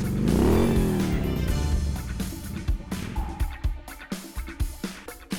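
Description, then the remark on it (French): A motorcycle engine revs loudly, its pitch climbing and falling, then settles into a lower idle broken by scattered knocks and clicks, as the rider goes to hide the motorcycle. “Planquons la moto et allons voir ça de plus près.”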